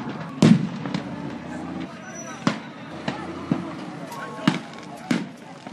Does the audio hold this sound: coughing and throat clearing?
no